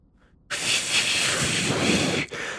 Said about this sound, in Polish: Odkręcasz zawór i słyszysz tylko takie ciche świszczenie powietrza.